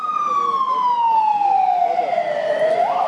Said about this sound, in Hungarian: fölmentem hűvös földbe autózni egyet. A, és jön egy mentő.